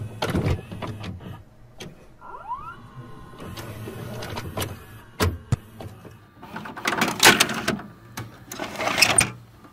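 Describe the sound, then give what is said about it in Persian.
An unlabeled videotape, taken out of a plastic bag, is pushed into a VCR: plastic clicks and clunks, a whirring motor with a brief rising whine, then busier rattling and handling noise toward the end. No one speaks. “دانیال نوار بدون برچسب را از داخل مشما بیرون آورد و توی دستگاه قرار داد”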